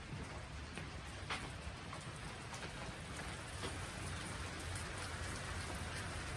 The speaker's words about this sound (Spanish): Está lloviendo allá afuera.